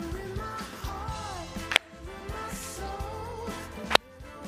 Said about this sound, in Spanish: Aplauso.